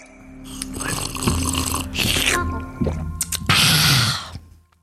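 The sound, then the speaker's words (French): Someone drinks water: a few wet, throaty gulps and swallows in quick succession, with soft breathy sounds between them and no talking. “Attends, je prends de l'eau.”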